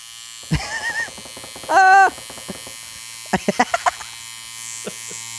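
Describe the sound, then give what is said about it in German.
An electric nose hair trimmer buzzes in short bursts while trimming someone's long nose hairs, with one steady buzz of about a second and several quick stuttering pulses, fairly loud over a constant low hum. “Ich habe lange Nasenhaare inzwischen wieder.”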